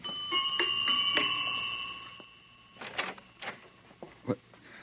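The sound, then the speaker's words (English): An apartment door buzzer, rung by a young woman standing outside the door, sounds with a steady electronic tone that pulses a few times for about two seconds and then fades, followed by faint clicks and rustling. “The next morning, a pneumatic young girl, crisply clad in a beta minus viscose linen suit, stood outside the door of the savage's apartment and somewhat nervously rang the buzzer.”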